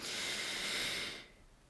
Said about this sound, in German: Einmal mehr tief atmen, Krone richten.